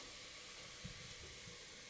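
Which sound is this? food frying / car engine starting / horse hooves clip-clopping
food frying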